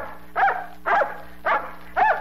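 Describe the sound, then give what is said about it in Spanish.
A dog named Pochocuape barks four times in a steady rhythm, each bark short, sharp and fairly loud, with a faint low hum in the background and no talking. “y ese perro no te espanta el venado, ¿ah?”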